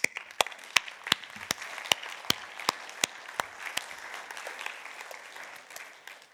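An audience applauds together as praise for Jesus, a dense wash of many hands clapping with sharp individual claps popping out in an irregular rhythm, steady and fairly loud throughout with no talking.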